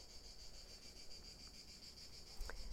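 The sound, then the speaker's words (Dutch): Crickets chirp in a steady, pulsing high-pitched trill that carries on throughout, soft, with a brief faint knock near the end and no voices. “Een grote stenen trap, Trap die past bij de krekels die je hoort.”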